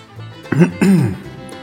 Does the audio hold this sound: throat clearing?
yes